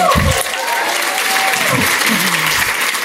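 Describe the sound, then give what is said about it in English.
Sustained applause from an audience fills the room, a dense steady patter of many hands clapping, with a few faint voices and murmurs rising underneath. “Uh, let's hear it.”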